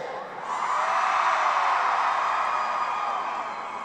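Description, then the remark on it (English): A large crowd of women screams and cheers loudly in one sustained, high-pitched roar that swells after a brief start and holds steady throughout. “I wanna make you scream. Let me hear you.”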